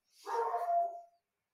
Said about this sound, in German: Und das war so ein Moment, da habe ich einen Hund, haben wir auch in der Familie. da, da hat sich der Hund gemeldet